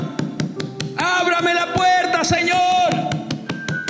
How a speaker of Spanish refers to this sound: es tocar insistentemente. Porque ¿quién no va a abrir una puerta así?